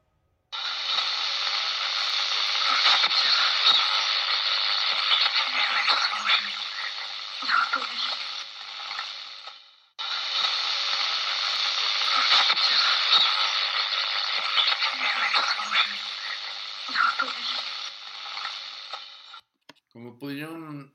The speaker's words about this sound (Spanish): Pero lo interesante del asunto es que escuchemos también parte de esta fonética que es muy similar a la psicofonía. Son voces muy huecas o que se pierden un poco en la intemperie del, del sitio o en el sonido ambiente. Escucha con atención.